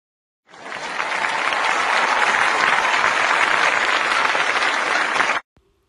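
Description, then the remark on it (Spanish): A burst of steady studio audience applause welcoming a psychologist guest, many hands clapping densely and evenly for about five seconds before stopping abruptly, with no voices over it. “Como primera invitada nos acompaña la psicóloga Alexa Martínez, un fuerte aplauso, por favor.”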